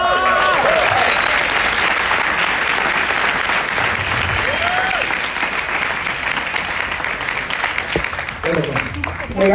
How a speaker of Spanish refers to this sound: otro fuerte aplauso